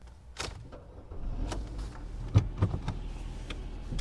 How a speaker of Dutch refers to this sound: We rijden nu weg van huis. Ik heb mijn heup geblesseerd, dus we kunnen niet lopen naar de universiteit.